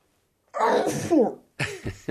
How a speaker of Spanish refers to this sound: Y número cuatro, puedes estornudar. Salud. Okay. Salud.